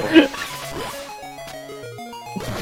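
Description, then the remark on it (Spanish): A buzzy, square-wave video game melody of short stepped notes plays from a Game Boy handheld console, bright and harsh; a brief burst of voice comes before it. “Hombre, el cambio de sonido sí que es un poco más chicharra, ¿no?”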